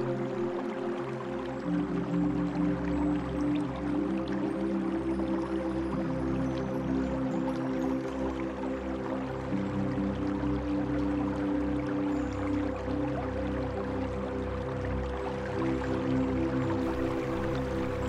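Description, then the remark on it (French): A steady, continuous babble of flowing stream water with an even wash that never pauses, layered over a low sustained droning tone throughout. “Imaginez les rayons du soleil se reflétant sur ce ruisseau que vous entendez.”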